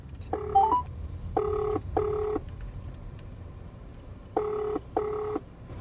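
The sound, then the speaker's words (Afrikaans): Electronic telephone dialing tones as a call is placed, five short beeping bursts in two clusters with a pause between, clear over a low background hum, no talking. “Kom ons kry haar gou op die lyn en praat jy gou met haar.”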